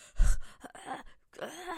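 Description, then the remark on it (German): A person imitates labored gasping for breath during an asthma attack, a few strained, breathy inhalations and groaning exhalations in close succession, fairly loud, with a short pause before the last breath. “Und dann sind wir halt gegangen und ich war wirklich so froh, als, als wir endlich aus der Wohnung rausgegangen sind, weil ich konnte wirklich kaum mehr atmen. Ich war schon so, so,”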